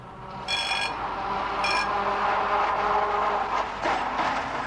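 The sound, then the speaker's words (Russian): A tram bell clangs in two short bursts over the steady, rumbling roll of a tram pulling away as a tall, thin man jumps aboard while it is moving, fairly loud, with no voices. “Я кинулся вслед за ним, но Высокой, пересекая улицу, неожиданно вскочил на ходу в трамвай и уехал.”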